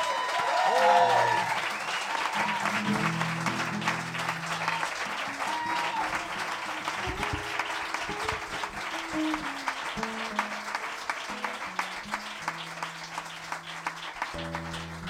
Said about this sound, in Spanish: Así que por favor recibir este fuerte aplauso al mejor grupo de México.